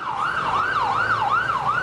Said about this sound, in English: I mean, it's a, it's a loud city. Mm-hmm. You hear that a lot. All the time. You hear that siren?